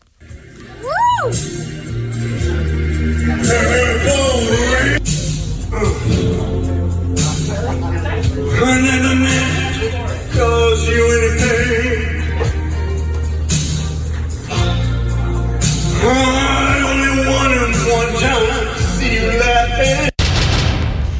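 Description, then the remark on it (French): A man belts out a song at karaoke in a loud, strained, shouting voice over backing music, sustained for the whole stretch, with rough pitch slides and a sharp knock near the end. “mais euh, pour l'avoir écouté attentivement ce matin, c'est parce qu'il crie.”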